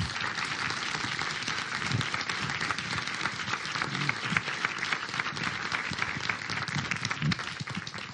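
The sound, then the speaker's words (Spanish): An audience breaks into sustained applause, a dense, steady wash of many hands clapping at even loudness for several seconds, with no talking over it. “Bueno, un aplauso muy especial.”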